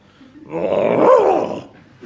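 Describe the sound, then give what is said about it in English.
A man's voice imitates a dog as a demonstration of talking to animals, with one drawn-out, rough growl that swells and fades over about a second. It is fairly loud, with no other talking. “I'll give you a demonstration if you like. Woof, woof, woof, woof, woof.”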